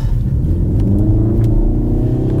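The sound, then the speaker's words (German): A car accelerating hard at full throttle out of a curve, its engine a loud, continuous low rumble that rises steadily in pitch over a couple of seconds, with no talking. “Und wenn man aus der Kurve mit Vollgas raus beschleunigt,”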